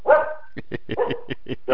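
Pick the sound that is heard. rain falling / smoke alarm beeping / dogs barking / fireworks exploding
dogs barking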